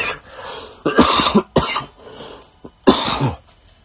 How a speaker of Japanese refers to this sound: で、今日ね、ちょっとね、さっき言ったように、まだコロナ感知していないので、ちょっと咳がね、出ちゃいます。